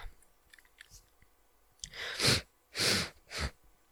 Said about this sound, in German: Wenn ich fertig bin mit Schniefen.